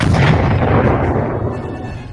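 A loud explosion sound effect: a heavy, rumbling blast with crackling debris that roars for a couple of seconds, then slowly begins to fade. No voices are heard.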